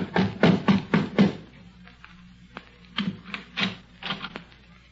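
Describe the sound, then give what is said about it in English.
A doctor knocks on the wooden front door of the Underwood home: a quick run of about five firm raps, a short pause, then another loose cluster of knocks, fairly loud with no talking. “The doctor knocked at the front door.”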